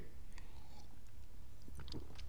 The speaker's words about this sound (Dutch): Even een slokje water, want dat moet ook af en toe gebeuren.